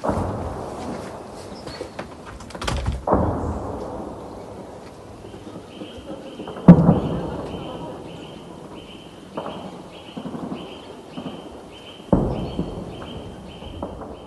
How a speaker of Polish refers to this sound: odgłosy walk w okolicy Irpienia.